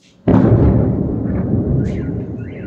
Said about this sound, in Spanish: La explosión estaba lejos del lugar en el que se encontraban, en una zona industrial. Hubo dos heridos leves. En Ucrania falta luz, falta agua, faltan alimentos, y este sonido acompaña a millones de ciudadanos en su día a día desde hace un año.